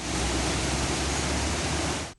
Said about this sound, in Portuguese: O que era um pasto de comida farta para o gado virou o rio. A água chegou com força e invadiu as propriedades.